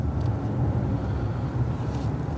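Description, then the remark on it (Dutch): A Mercedes-AMG S63 Coupé cruising on a highway in comfort mode, heard as a steady, even low rumble of engine and road noise with a faint airy hiss above it, no voices. “Eh, Mercedes AMG 63. S63 Coupé.”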